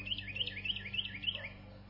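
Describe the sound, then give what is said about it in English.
A small bird that flew up onto a ranch cabin's porch just before sunup chirps in a quick, steady series of high, bright notes over a low background hum. “I recorded that little bird that you hear on the patio of my cabin at Joshua Creek Ranch when I was there bird hunting with them.”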